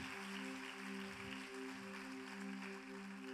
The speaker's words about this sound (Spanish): Dale un fuertísimo aplauso al Rey. Vamos, que se oye en el cielo.